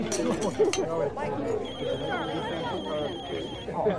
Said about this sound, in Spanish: Se lo pasan en grande hasta que suena el teléfono de Harry es una de las personas que trabaja para él desde Londres.